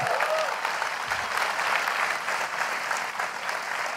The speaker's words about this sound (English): Let's give them a big round of applause.